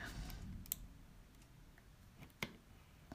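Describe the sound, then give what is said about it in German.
A few faint, sharp computer mouse clicks while crafting a shield from wood and iron in a video game, spaced irregularly over a quiet background, with no one speaking; the clicks are soft. “Ich hoffe, man hört das Geklicke nicht, weil ich finde, das ist total nervig.”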